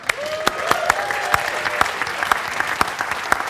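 An audience claps steadily for several seconds, a dense wash of hand claps with sharper individual smacks standing out, with a faint whistle or cheer rising briefly early on.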